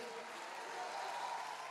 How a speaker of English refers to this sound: You want to clap your hands and thank God for what you have in this house. Come on, somebody clap your hands and shout hallelujah.